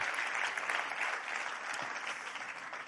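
A church audience applauds steadily at the preacher's call during a Spanish-language service, a dense wash of many hands clapping at an even, sustained level for the whole stretch, with no voices standing out.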